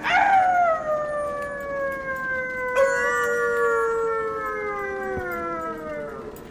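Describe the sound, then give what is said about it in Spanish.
Wolves howl at night around travelers speeding along, in long, drawn-out tones that slowly fall in pitch, a second voice joining partway through so the howls overlap, steady over a low background hiss. “Después, durante un rato, no volvimos a ver más llamas azules y seguimos corriendo a gran velocidad a través de la noche, mientras los lobos aullaban a nuestro alrededor, como si nos siguiesen, manteniendo el cerco a la misma distancia.”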